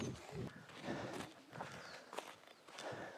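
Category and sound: human body sound, footsteps walking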